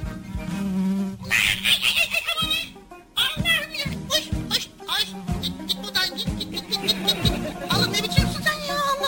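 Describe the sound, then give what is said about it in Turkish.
A bee that has come inside buzzes steadily indoors, its droning hum rising and falling as it moves about, with children's voices chattering intermittently over it. “yani sonuç itibariyle arı içeri girdi diye e, biz heyecan da yapmamız gerekmiyor yani.”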